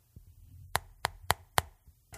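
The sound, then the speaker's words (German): Four light knocks on a window, tapped in a quick, even rhythm, soft, with no voices around them; a small fox knocks very carefully at Janine's window. “So wusste er, dass Janine Lehrerin ist und eines Tages klopfte er ganz vorsichtig an Janins Fenster.”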